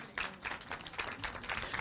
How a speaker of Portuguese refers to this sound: Não, uma salva de palmas.